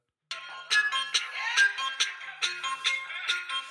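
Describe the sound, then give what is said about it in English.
A phone ringtone picked from a person's phone plays a bright, bouncy electronic melody of quick repeated notes in a steady rhythm, fairly loud, with no one talking over it. “Um, uh, shall I pick one of the ringtones I have?”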